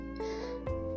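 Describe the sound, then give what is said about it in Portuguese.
A dog lets out a couple of short barks within a second, over a steady low hum, with no one talking. “Gente, esse é meu cachorro.”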